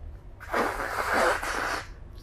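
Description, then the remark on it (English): A single loud, drawn-out slurp of a drink, a wet, hissing intake of air and liquid lasting over a second before cutting off. “show, is you need to slurp this as loud as you can.”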